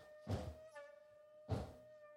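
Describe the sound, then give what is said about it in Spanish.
A voice imitates two heavy, muffled thumps, about a second apart, of several things hopping all at once in unison, over a faint steady whine in the background. “Varios al mismo tiempo, brincando todos al unísono, güey.”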